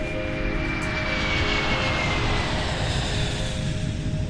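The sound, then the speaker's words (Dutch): Steady, loud engine drone fills an airplane cabin in flight as the plane begins its descent toward Istanbul, a constant low rumble with a faint high whine over it, unbroken and without any voices. “En we zaten in het vliegtuig. Um, we hadden een tijdje gevlogen en we zetten de daling in.”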